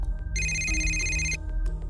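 A phone ringtone chimes once in a bright, steady electronic burst lasting about a second, fairly loud over a low background rumble, with no one speaking. It is a woman's phone ringing as she prepares to go to the downtown courthouse. The call is from the prosecutor.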